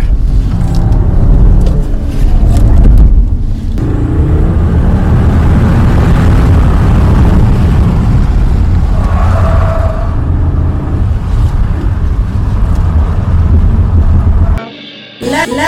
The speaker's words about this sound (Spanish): Y vamos a seguir escuchándolo. Vean, escuchen un poquito el sonido del motor.